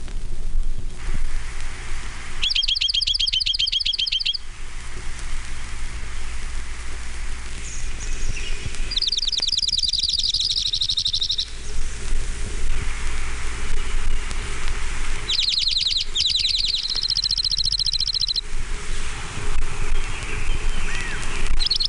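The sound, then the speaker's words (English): An orange-crowned warbler sings three separate trilled songs, each a few seconds long and spaced by pauses, over a steady wash of rain-like background noise. “orange-crowned warbler.”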